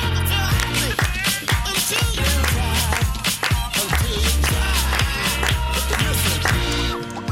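Steady rhythmic hand clapping by a news presenter in a Mix Megapol radio studio, keeping time over loud, busy music, the claps landing on a regular beat throughout the few seconds before fading slightly at the end.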